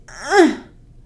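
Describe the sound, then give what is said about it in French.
A single short vocal moan, rising then falling in pitch over about half a second, voiced by a person imitating the small groan a woman makes at the peak of a contraction in labor as the baby's head passes through the cervix, moderately loud with no other talk. “La marée, c'est le retour des contractions un peu plus fortes et on va parfois entendre la femme au sommet de sa contraction faire un petit”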